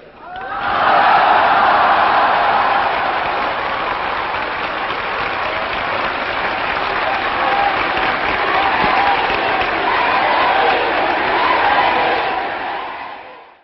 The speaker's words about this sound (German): Ja, er kam sogar für zweiten Applaus wieder raus.